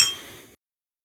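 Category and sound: household object, beer glasses clinking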